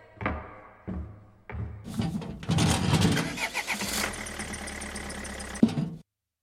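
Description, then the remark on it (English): An engine cranks in three short grinding bursts, then catches and roars to life, revving loudly before settling into a steady running rumble that cuts off abruptly. “Internal combustion engine.”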